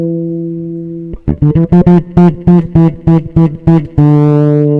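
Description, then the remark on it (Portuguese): A sustained tone gives way to a quick melodic run of plucked, bright bass notes with a steady rhythm, played through a reverb effect and ringing with a reverberant tail, then settles back into a held note. No voices. “Eu tô usando um reverb. Eu tem um reverbzinho Vou tirar ele aqui pra, pra ver a diferença do som.”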